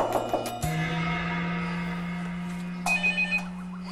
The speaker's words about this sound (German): Tja, das war meine Klingel.